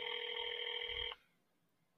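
A single ringback tone from an outgoing phone call, a steady buzzy ring lasting about a second, then quiet with a faint click at the very end. No one speaks.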